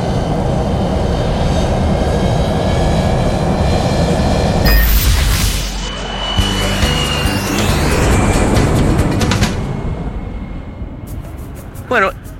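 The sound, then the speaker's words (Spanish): An airplane taking off: a steady, loud engine roar with high whining tones, a surge and rising sweep midway, then the rumble gradually thinning out, with a couple of brief chirps at the end. “A ver, estamos listos para el despegue.”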